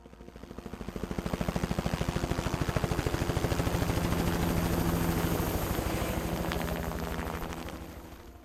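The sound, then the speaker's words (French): A helicopter flying to the Dhaulagiri base camp, after a landslide blocked the road, passes by, its rotor blades beating out a rapid, steady chop over a loud engine whine that swells to a peak and then gradually fades. “Et donc euh, plan B, hélico.”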